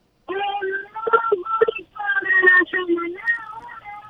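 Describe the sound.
A caller's voice over a telephone line, thin and tinny, sounding distant and muffled as it talks steadily for a few seconds.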